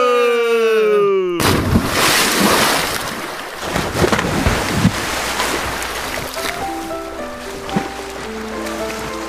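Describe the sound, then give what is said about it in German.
A rising whistle-like tone cuts off into a loud, sudden splash of water as someone does a cannonball dive, followed by sloshing and a stretch of bubbling, gurgling sounds as if from underwater. “Wir sehen uns im Ebertbad. Und Arschbombe! Arschbombe!”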